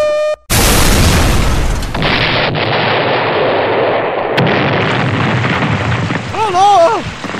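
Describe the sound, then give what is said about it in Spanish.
A short beep, then a sudden loud explosion of explosive charges in a factory, set off with Wild Billy's detonator, that roars and rumbles for seconds, with a second blast and a sharp crack inside it, ending in a wavering, wailing cry. “Wild Billy saca de su bolsillo el detonador de las cargas explosivas.”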